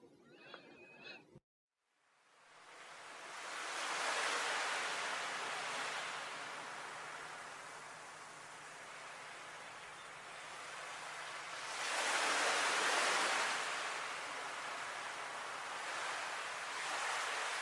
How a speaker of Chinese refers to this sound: 那个夏天，踏着细碎的海浪，在阳光的照耀下，看着三个少年在海边玩耍，仿佛自己也闻到了那咸咸的海风。